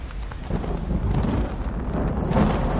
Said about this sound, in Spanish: Una ráfaga sacude a Rob y choca contra una roca.